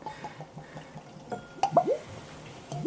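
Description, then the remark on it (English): Whisky being poured into glasses in small pours during a whisky tasting, in short bursts, with quick glugging, rising tones and small drips and clinks, fairly quiet, and no talking. “Small pours.”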